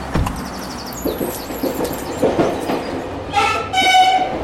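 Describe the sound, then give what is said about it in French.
An RER B commuter train rumbles past with rattling wheels, and near the end a bright, loud horn blast sounds over the noise. “Le RERB atteint pas loin du, million d'usagers quotidiens”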